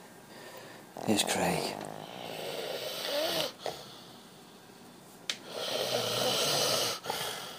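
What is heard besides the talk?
man snoring loudly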